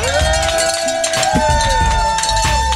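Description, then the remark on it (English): Cowbells clang loudly and continuously during the St. Jude Radiothon, a dense, aggressive jangle of ringing with a bustling crowd stirring underneath. “What's wrong with your my, all my my bells is. It's too aggressive. I don't know how to do it lightly.”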